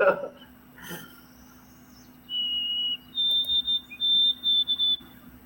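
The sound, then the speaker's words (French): A white-throated sparrow sings a series of high, clear whistled notes: one long steady tone, then several quick repeated phrases, moderately loud against a quiet background with a faint hum. “Alors, parle-nous un peu de cet oiseau et du monde qui joue dans, le texte.”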